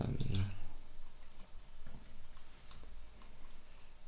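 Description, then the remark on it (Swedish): A computer mouse clicks a few times to bring up an album, faint and unevenly spaced, after a brief low thump at the start. A quiet hum sits underneath. “Vad är det här du har klickat fram?”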